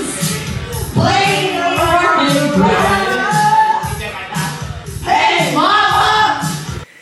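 A karaoke performance of a rock song: a loud, strained singing voice over a steady, thumping backing track with a driving beat, continuous for the whole stretch.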